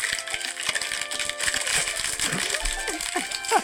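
Dense, bright crinkling of a plastic cookie package being opened, a steady stream of crackles and snaps with some rattling, carrying on for several seconds with no voices.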